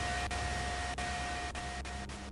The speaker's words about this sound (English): and closer to the tank, we can hear a radio call coming in. It's kind of garbled, kind of staticky, keeps cutting in and out. But we hear. Pearson, come in over. This is Private First Class Peterson. Is anybody reading this? Anybody? It goes static.